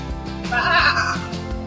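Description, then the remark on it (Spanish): A single sheep bleats clearly, a wavering, nasal baa lasting about a second, set over a low continuous background. “Exacto, oveja lana.”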